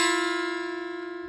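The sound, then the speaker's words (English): A sustained, clashing musical chord held steadily and fading slightly, with a rough, wavering beat running through the tone. No one speaks over it. “There's all kinds of um, cognitive dissonance, but people don't like dissonance because dissonance sounds like this.”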